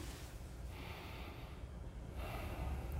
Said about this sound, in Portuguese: É, respira fundo por um segundo.